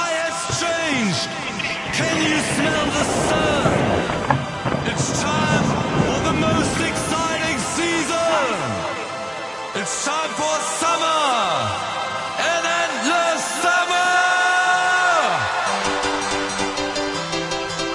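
An upbeat techno dance track plays loudly and continuously for the whole stretch, with dense layered synths and sweeping melodic lines, sounding as though it comes from a radio.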